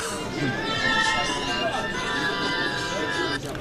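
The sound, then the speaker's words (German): A mobile phone ringtone plays continuously, a bright sustained electronic melody held at steady loudness over a busy, noisy background, cutting off just before the end. “also Ihr Handy klingelt gerade.”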